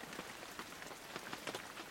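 Steady rain patters onto a hard surface, a quiet, continuous hiss broken by scattered droplet taps, with no voices present.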